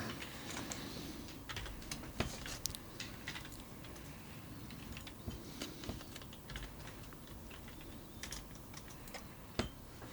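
Steady typing on a computer keyboard, a continuous patter of quick clicks with occasional louder key strikes, fairly close and moderately quiet, with no voices.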